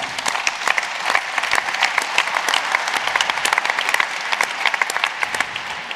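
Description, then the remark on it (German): Steady applause from an audience welcoming Christian Steinke, a director at PriceHubble, fills the whole stretch, a dense, bright patter of many hands clapping at a fairly even loudness with no voices over it. “Bitte einmal großen Applaus für Christian.”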